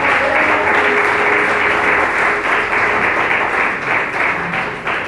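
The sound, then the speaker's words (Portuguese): An audience applauds the Lord Jesus in praise, clapping steadily for about five seconds, a loud, dense wash of many hands clapping with no pauses, while a faint tone hums underneath. “Glória a Jesus, aplauda o Senhor Jesus.”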